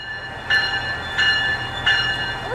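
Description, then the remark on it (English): A SMART commuter rail train runs steadily: a low rumble under a sustained high mechanical whine, with a louder rhythmic clunk roughly every two-thirds of a second. “And I also had a chance to check in with commuters who are using the rail system as a smart way to get to the Giants games.”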